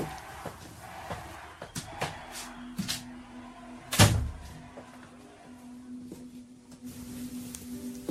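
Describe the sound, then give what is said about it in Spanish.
A door shuts with a single solid thud midway through as someone leaves, preceded by a few soft clicks and shuffles, then a low steady hum lingers in otherwise quiet surroundings. “Cierra la puerta cuando salgas.”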